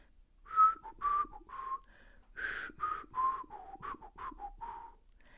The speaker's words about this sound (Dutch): Ik ga voor hem zitten en hij blaast ritmisch als een lied over de thee heen,